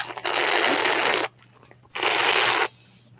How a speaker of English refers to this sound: It sounds like someone's slurping. Stop. Who is slurping? Stop. I'm trying to drink water.